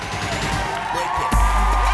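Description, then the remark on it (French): A loud crowd in a packed nightclub cheers and whoops around the stage where Thomas and Nabila are dancing, a dense, continuous roar, with a heavy low bass rumble swelling in partway through. “La discothèque est pleine à craquer et une foule en délire se presse autour de la scène où Thomas et Nabila dansent, s'embrassent et mettent une ambiance de feu.”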